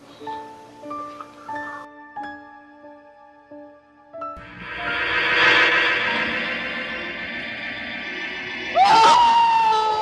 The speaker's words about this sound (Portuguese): ela só é engraçada até ela começa com aqueles gritos doidos e, e, e, só é engraçado, não chega a ser.